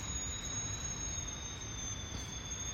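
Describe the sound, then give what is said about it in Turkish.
Strong wind buffets the microphone in a steady, loud roar of low rumbling noise, with a thin high-pitched whine running continuously above it; no one speaks. “Ee, oha rüzgar çok fena.”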